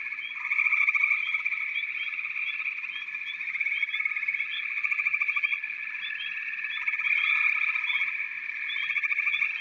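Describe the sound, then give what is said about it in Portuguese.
A dense chorus of frogs croaking continuously, many calls overlapping in a steady, buzzing drone with faint repeated chirps on top, fairly loud and with no voices. “Você escuta o barulho dos sapos.”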